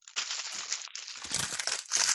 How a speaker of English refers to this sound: I wish was... you had a piece of paper to crumble up right there on, on your microphone. I'll find here. Here we go.